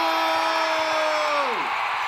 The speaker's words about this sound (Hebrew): בהתחלה היה נראה שהקבוצה שלי הולכת להפסיד, אבל אז נתתי פייט ושמעתי את הקריין צועק גול! גול!